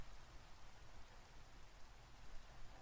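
Steady rain falls without pause, a dense, even hiss with a soft low rumble underneath. It stays fairly quiet and constant throughout, and no one speaks.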